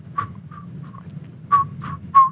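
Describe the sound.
A person whistles a series of short, high chirping notes, mimicking a frog's call: three quick whistles, a pause, then three louder ones, clear over a low background hum.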